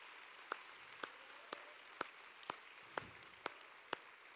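An audience applauds Jesus, a steady wash of clapping with sharper claps landing in an even beat about twice a second, fairly quiet overall and with no voices.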